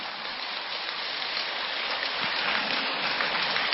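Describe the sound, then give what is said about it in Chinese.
Sustained, dense applause from many people: a steady, loud wash of crackling claps with no pauses, holding an even level throughout with no voices. “我刚刚一讲，大家为了很多没听懂的，为了装出来自己听懂了，又拼命的鼓掌了。”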